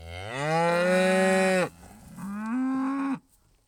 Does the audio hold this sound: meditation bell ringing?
no